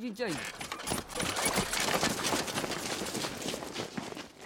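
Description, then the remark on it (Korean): Quick running footsteps of Kim Cheom-ji pound along in a fast, busy rhythm, speeding up again as he moves away from home, loud, with a brief voice at the very start. “다시 집에서 멀어질수록 다시 빨라지는 김첨지의 발.”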